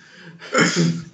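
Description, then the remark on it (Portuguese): A young man sneezes once nearby, a sudden loud burst after a brief quiet intake, trailing off within about a second. “Não, o rapaz é tá espirrando aqui do meu lado.”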